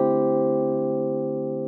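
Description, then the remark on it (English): A single sustained D minor 11 piano chord rings out alone, rich and full, with several notes blended together and fading very gradually over a couple of seconds. “The chorus is in E flat major 9, then a C minor 7, then a D minor 11 or a D 13 sus almost.”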